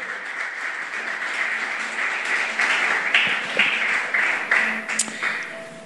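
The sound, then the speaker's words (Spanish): A crowd applauds steadily for several seconds after a scripture reading, a dense wash of many hands clapping at once, fairly loud, with a few faint voices mixed into the noise. “Dale un aplauso a la palabra.”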